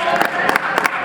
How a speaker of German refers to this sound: Zwischenapplaus. Applaus.